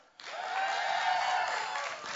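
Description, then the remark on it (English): An audience at a King of Kings church service, greeted a second time, erupts in loud cheering and whooping, a dense roar of many voices that rises suddenly and holds steady for a couple of seconds, with some applause mixed in. “For everybody watching online, in case you couldn't hear that, that was much better the second time.”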